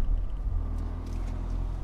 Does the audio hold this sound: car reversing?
yes